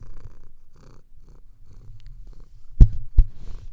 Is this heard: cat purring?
yes